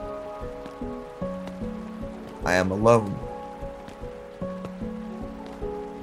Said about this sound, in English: There is no sound other than the rain and the wind and my footsteps on the road.